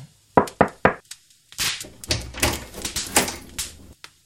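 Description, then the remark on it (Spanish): A heavy wooden chair thumps three times, then scrapes and bumps noisily across the floor as it is carried back to its place, before being set down with a dull knock. “Vamos, ayúdame a llevar mi silla a su lugar. Las sillas son muy pesadas hoy en día.”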